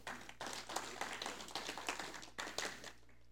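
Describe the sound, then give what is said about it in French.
A crowd applauds the technical team with dense, overlapping claps that stay fairly steady for about three seconds, then quickly fade out. “Vous pouvez lui faire une bonne main d'applaudissement.”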